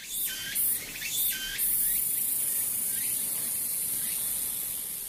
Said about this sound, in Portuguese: Já esse canto aí é do Aburazemi. Haburar quer dizer óleo e zemi é cigarra. Essa cigarra tem entre 55 e 60 milímetros e ela tem esse nome provavelmente porque o som do canto dessa cigarra lembra o óleo quando está quente numa panela de fritura.